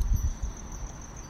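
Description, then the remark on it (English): Crickets chirp in South Central California in a steady, high-pitched trill that runs unbroken from start to finish, moderately faint, over a low rumble of gusting wind. “You guys hear the crickets in the background I hear in South Central California, whatever.”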